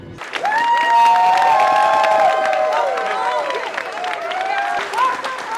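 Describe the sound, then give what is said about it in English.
A large crowd in the Midway airport terminal cheers and whoops loudly at a homecoming, with high excited shouts and clapping blending into a dense, sustained roar that stays strong for several seconds; the terminal is filled with cadets from Great Lakes and families holding signs. “The terminal is filled with people cadets from Great Lakes, families with signs praising their heroes.”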